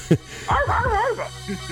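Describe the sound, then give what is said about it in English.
A man's voice imitates a dog barking, one drawn-out, wavering bark-like yelp, fairly loud, preceded by a short sharp sound and trailing off into quiet. “See, I went into great dog mode.”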